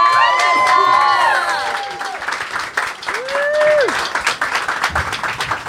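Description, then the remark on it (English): A crowd bursts into loud applause mixed with whooping cheers and high, rising shouts, the clapping continuing steadily and thinning slightly toward the end. “I want everyone, please give a round of applause right now”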